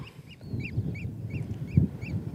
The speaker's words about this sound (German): Was man da jetzt im Hintergrund hört, ist ein ganz typischer Vogel. Hier ist der Austernfischer, der eben so einen ja, ganz prägnanten Ruf hat, der immer heraussticht.